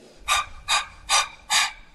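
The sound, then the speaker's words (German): Four quick, airy breaths through the mouth, in and out in a steady fast rhythm, fairly loud, almost like panting. No one speaks. “So, atmen wir vornehmlich durch den Mund ein und aus.”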